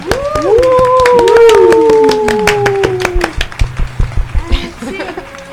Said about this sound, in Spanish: Ah, aplaudan de verdad antes de que pongan los efectos. Y aplaudan frente al micro para que se escuche chido.